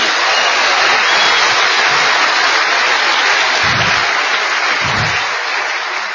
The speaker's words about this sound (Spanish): Les pido pues un aplauso a ustedes porque hoy están aquí.